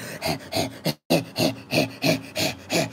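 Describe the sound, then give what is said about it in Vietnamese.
A person imitates the heavy, rhythmic panting of a tired ox coming home after pulling a plough, about ten loud, huffing breaths in steady succession with a brief pause near the start. “Đó là cái con đường của con bò nó kéo cày con bò nó kéo cầy rất siêng năng nhưng mà con bò nó nhận được mấy bó cỏ một ngày và nó về nó thở này”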